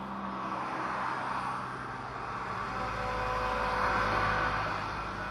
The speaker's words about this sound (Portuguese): De lá é possível ouvir o barulho frequente de caminhões que trafegam lotados, carregando centenas de toras de madeira extraídas legal e ilegalmente do que ainda sobrou da floresta amazônica.